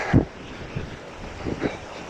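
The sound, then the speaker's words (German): Steady rushing wash of sea surf on a sandy beach during a morning walk on a Sunday in August, mixed with wind buffeting the microphone and a few soft thumps, with no voices present. “Und man hört das Meeresrauschen.”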